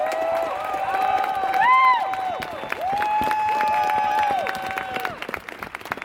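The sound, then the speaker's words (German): A crowd claps steadily for several seconds, applauding people who chained themselves to a construction site, while voices cheer and whoop over the top, with rising and falling shouts and whistles cutting through the dense applause. “Applaus für diese Menschen.”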